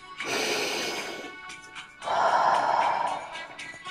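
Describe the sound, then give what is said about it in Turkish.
A clearly audible breath: a hissing inhale through the nose lasting about a second, a short pause, then a longer, softer whooshing exhale through the mouth. No talking. “Burundan nefes alıyorum. Ağızdan nefes veriyorum.”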